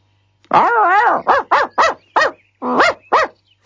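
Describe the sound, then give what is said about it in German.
A Border Collie at the Staffeleck, beside the Restaurant Staffeleck, gives a long, wavering whine-like howl, then a quick run of six short, high-pitched barks and yips in a loose rhythm, loud and alone with no talking. “Auf dem, grad neben dem Restaurant Staffeleck, äh, steigt sie aus ihrem Auto aus und hinter drin ihren Border Collie.”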